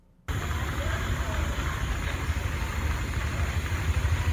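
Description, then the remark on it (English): A steady, dense wash of static-like noise from a noise machine switches on abruptly and holds at a constant level, rich and rumbly in the low end with a soft hiss above, much like rainforest ambience. “Well, the first one sounds like the outside of a bar mitzvah, and the second one sounds like the rainforest.”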